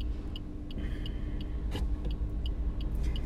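A car drives along with a steady, heavy low engine and road rumble. Faint, evenly spaced ticks repeat throughout, and no one speaks.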